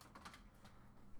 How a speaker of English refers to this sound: Guys, if you hear my dog going brr, brr, brr, or if you hear the, the curtains move like this,